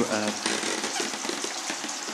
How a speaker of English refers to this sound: Oh, oh, it's working. Oh my god. Running water. Thank fuck. I am going to shower so hard and be so fucking clean.